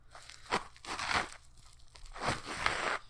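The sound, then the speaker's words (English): A wrapped penis-shaped gift being unwrapped: crinkly paper rustles and tears in several uneven bursts, bright and scratchy, with brief pauses between them and no talking. “All right, I'm unwrapping the penis.”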